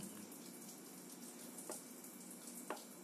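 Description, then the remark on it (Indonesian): Steady, hissing splash of water from a fountain next door, heard in the background, running continuously with no voices, broken by two brief louder splashes about a second apart near the end. “ini backgroundnya gemercik air air mancur sebelah air mancur iya sih kedengeran”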